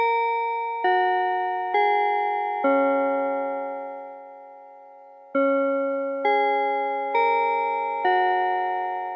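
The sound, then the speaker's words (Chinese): A bell chime marks the start of a tech morning-study segment. It rings two four-note phrases, each note struck with a bright, ringing tone that decays slowly, with a lingering pause between the phrases. No one speaks. “钟声过后，开始今天的科技早自习喽。”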